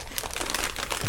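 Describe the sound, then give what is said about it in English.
Lightly stale sour cream and onion Pirate's Booty corn puffs spill out of a crinkly snack bag onto the floor after the wrong end of the bag is picked up, a brief, continuous rush of light rattling and rustling, fairly loud, with no voices. “It's spilling all over the floor.”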